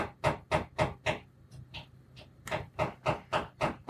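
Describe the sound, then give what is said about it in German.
A neighbour hammering: quick evenly spaced blows in two bursts with a short pause between, about ten strikes in all, somewhat muffled as if through a wall. “Jetzt hämmert noch mein Nachbar.”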